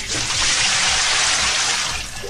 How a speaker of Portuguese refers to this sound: E também o balde de água fria.